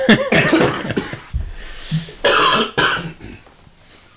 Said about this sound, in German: oh, ich sterbe. Ich sterbe immer noch. Langsam. Sein Qualen, quälender, langsamer immer, Tod. Immer noch husten. Er wird besser. Hm. Ich krieg wieder teilweise Luft.